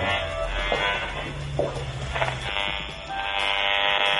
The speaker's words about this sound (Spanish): Este es el teléfono inalámbrico del vecino de abajo. Son sonidos como ocultos que solo un aparato puede revelar.